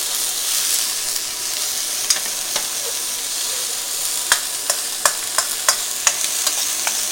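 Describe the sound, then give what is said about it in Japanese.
Bean sprouts stir-frying in a wok with a stainless steel ladle: a steady loud sizzle with sharp metallic clacks of the ladle scraping the pan, coming irregularly and more often toward the end. No one speaks. “ステンレスのお玉があったらステンレスお玉でやるわうるさいでしょこのもやし音はうるさいよね”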